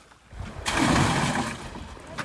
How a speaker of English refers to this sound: The crew fills a cage with water on the processing raft. Then they dump the fish in.